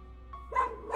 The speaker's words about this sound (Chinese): 于是我轻轻的在黑虎屁股上拍了拍，黑虎便汪汪的叫着扑了上去。